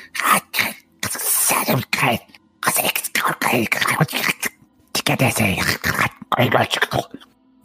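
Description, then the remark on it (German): A voice imitates hissing, whispered voices: a breathy run of sibilant bursts and airy murmurs in uneven spurts, broken by short pauses, with no clear words. “Also als ihr hier, äh, als ihr quasi in diesen Raum reinhört, dass eine Tür noch äh, geschlossen ist, es sind wirklich so Zischlaute, also die ungefähr so klingen.”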